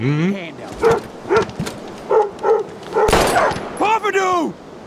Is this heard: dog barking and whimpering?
yes